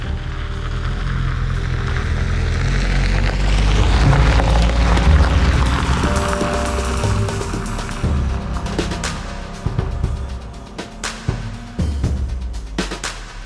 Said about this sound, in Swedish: Vi kör från Uppsala mot Västerås och sen svänger vi upp mot Skinnskatteberg och pensionat Udden.